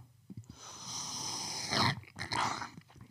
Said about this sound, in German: So, der erste Schluck, den hört dann auch jeder.